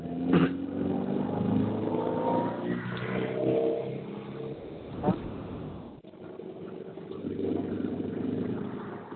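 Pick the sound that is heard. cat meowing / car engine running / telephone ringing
car engine running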